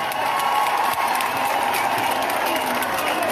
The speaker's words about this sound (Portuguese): Uma salva de palmas para a nossa ministra da Justiça.